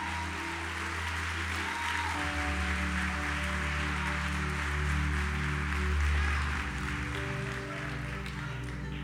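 An audience applauds Jesus steadily for about nine seconds, a dense, even wash of clapping, while sustained low keyboard chords hum underneath and swell slightly midway.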